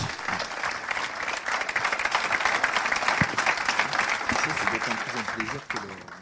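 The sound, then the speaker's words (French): Audience applause for the firm Tubert Environnement as it receives the region's 'coup de cœur' trophy, a dense, steady wash of many hands clapping at once, fairly loud and sustained for several seconds before easing off slightly near the end. “On peut les applaudir également. Bien fort.”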